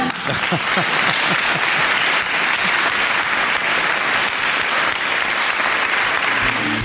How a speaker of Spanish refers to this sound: hay que aplaudir, hay que aplaudir, ha salido un programa que muy bueno, tenemos, no sabes, sabes que está nuestro público aquí al lado, ¿verdad? Sí, está nuestro público